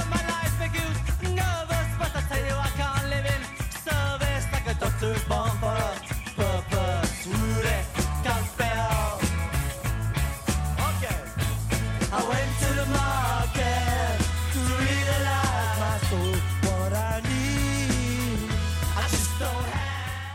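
A loud, full-band rock song recorded in 1979 plays throughout: a steady, pulsing bass line, punchy drums and a melodic sung vocal, continuous and up front with no talking over it.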